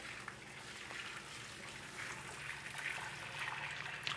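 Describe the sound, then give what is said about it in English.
A steady stream of water pours and splashes continuously as the water is drained from a pot of spaghetti, with the pot's lid used to drain it. A soft hiss grows slightly fuller toward the end. No one speaks. “You don't need to put the, the thingy on the sink and then throw the water out.”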